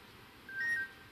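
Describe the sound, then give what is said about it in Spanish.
A mobile phone rings with a brief electronic tone, one short steady chirp lasting about a third of a second. It is fairly quiet, over faint background hiss, with no one talking. “Está llamando. Mi, mi teléfono suena así.”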